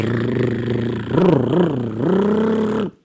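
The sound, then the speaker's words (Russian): A voice imitates a revving, growling car engine, a loud growl that swells and dips twice before settling into a steady rumble and cutting off abruptly. “Но машины... Машины озверели. Машины рыч...”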